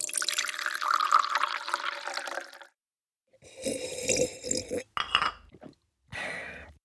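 Tea made with green oats, nettle and cardamom is poured into a cup in one steady stream lasting a couple of seconds, its tone rising as the cup fills, followed after a pause by a few short clinks and handling sounds.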